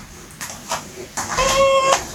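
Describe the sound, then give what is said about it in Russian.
A domestic cat gives a single clear, drawn-out meow that rises then falls, following a few soft rustling bumps. “Боже, какая кошка, вот какая невероятная красавица.”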